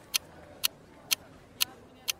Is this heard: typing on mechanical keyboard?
no